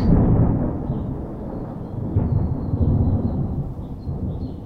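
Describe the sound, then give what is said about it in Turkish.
A deep, continuous rumble of thunder rolls on for several seconds as the weather turns stormy, loud and low, swelling slightly again midway before trailing off, with no voices present. “Aa, hava mı bozuyor. Islanmayı hiç sevmem.”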